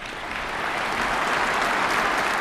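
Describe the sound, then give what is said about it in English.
Sustained applause from a large audience of delegates, MPs and officials fills a hall during President Putin's State of the Nation address, a dense steady clatter of many hands clapping at even loudness throughout, with no voices standing out. “And you can hear the response of all the delegates and MPs and officials as he says that Western elites have become a symbol of total unprincipled lies.”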